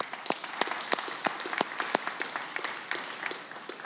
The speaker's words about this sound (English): So let's give them all a round of applause, please.